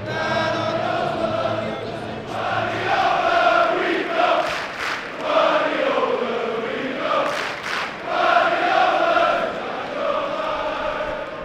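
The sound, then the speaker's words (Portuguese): Crystal Palace and Manchester City fans sing the Crystal Palace club anthem in unison during a Premier League match, a loud, steady chant whose melody rises and falls in long sustained phrases with no break across the whole stretch. “E esse hino do Manchester, quer dizer, esse hino do Crystal Palace, na verdade, sendo cantado também pela torcida do Manchester City, porque é a música deles que eles cantam para o Guardiola com esse mesmo ritmo.”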